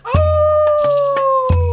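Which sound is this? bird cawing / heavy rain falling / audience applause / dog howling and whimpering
dog howling and whimpering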